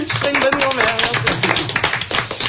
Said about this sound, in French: bon, bravo, on peut, on peut l'applaudir.